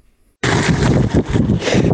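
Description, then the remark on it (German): Wind buffeting a microphone outdoors: after a brief silence, a loud, rough roar cuts in abruptly and keeps rumbling and surging in uneven gusts, heavy in the low end, with no voices. “ich kann mir ein wenig von deinen Audio-Updates erinnern, wo es nicht irgendwie gerauscht und gewindet hat im Hintergrund.”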